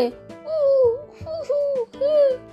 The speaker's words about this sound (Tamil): இதுதான் நம்ம வாத்துன்னு சொன்ன உடனே கத்துற சத்தம் ஆனால் வாத்துலயும் ஆண் வாத்து பெண் வாத்து ரெண்டும் இருக்கு இல்லையா இதில் பெண் வாத்து மட்டும்தான் அப்படின்னு நம்ம நினச்சிட்டு இருக்க வாத்து சத்தத்தை கொடுக்கும் ஆண் வாத்து